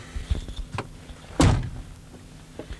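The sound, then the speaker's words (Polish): A car door slams shut with a single heavy, muffled thud midway through as the occupants get out after closing the windows and pulling the handbrake at the end of a car presentation. A few faint knocks and clicks come before it and one light tap after. No one speaks. “Także teraz będziemy wysiadać i na tym a jeszcze oczywiście zaciągnięty ręczny hamulec i na tym zakończy się pierwsza część prezentacji.”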